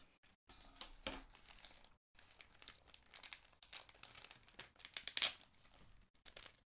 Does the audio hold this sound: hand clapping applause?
no